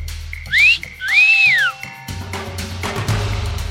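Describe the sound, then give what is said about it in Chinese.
A person whistles: two clear, high-pitched whistles, a short upward swoop, then a longer note that rises and falls, followed by a low, noisy background hum with no whistling. “这时候呢，听到了吹口哨的声音哦。”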